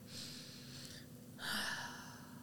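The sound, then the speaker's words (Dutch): A slow, deep breath drawn in and then let out, the airy exhale slightly louder than the inhale, fairly soft with no talking. “En dat kan je ook doen door ademhaling.”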